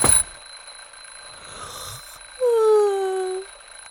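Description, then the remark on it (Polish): An alarm clock goes off with a single loud, bright electronic tone lasting about a second, over a thin steady high-pitched whine. No one speaks. “Budzik to jedyny dźwięk, jakiego nie znosiłem.”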